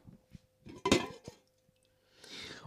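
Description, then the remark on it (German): One of two cooking pots is lifted with a few metallic clinks, one sharp loud clank among lighter taps, followed by a short scraping rustle. No one speaks. “Es stehen zwei Töpfe hier. Und jetzt nimm mal den Topf hoch.”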